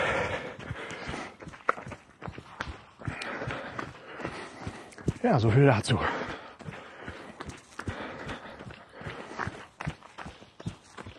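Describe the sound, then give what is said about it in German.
Horse hooves clip-clop in an uneven walking rhythm as horses are moved to another paddock, with a brief whinny-like sound midway and a person speaking briefly over the steps outdoors. “So, hier werden irgendwelche Pferde überführt auf eine andere Koppel sehr interessant.”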